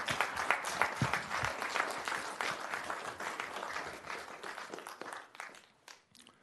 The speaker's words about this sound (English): United States Navy. United States Marine Corps. more applause, please.